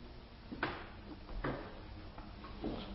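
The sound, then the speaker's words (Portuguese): A chair is shifted into place with three short scraping bumps spaced about a second apart, over a low steady room hum. “É você me dá essa cadeira aqui?”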